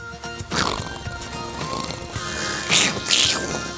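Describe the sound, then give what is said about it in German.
A person imitates a snow leopard with a few breathy, hissing rasps and throaty bursts, fairly loud, with no speech around them. “Mach mal wie ein Schleeleopard.”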